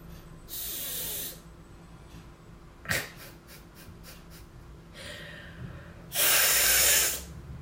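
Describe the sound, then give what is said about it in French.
Several breathy, hissing puffs of air blown into a homemade whistle, producing no clear tone, with a sharp click and faint rattling taps between the blows. “Si je souffle, normalement ça fait du bruit.”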